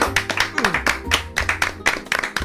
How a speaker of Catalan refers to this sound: Ara sí, és el moment d'aplaudir, eh? Va, va, va, som, som.